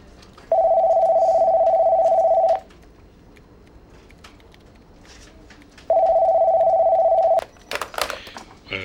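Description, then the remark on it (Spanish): A telephone rings twice, each ring a steady electronic tone lasting a couple of seconds with a long pause between, followed by a brief clatter like a handset being picked up. “Y un día recibí una llamada de uno de los jefes.”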